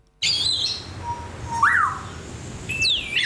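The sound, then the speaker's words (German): A grey parrot in the Lewa Savanna habitat at Zurich Zoo chirps and whistles: a burst of high squeaky chirps, a short rising-falling whistle, then a sweeping descending call over a steady low background rumble. “Graupapagei in der Lewa-Savanne zwitschert fröhlich.”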